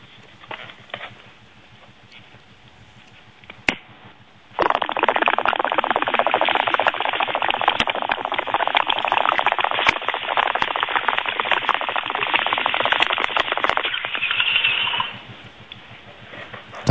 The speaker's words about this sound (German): Das hört sich nach einem 70 liter blubby an. Das war die Friedenspfeife.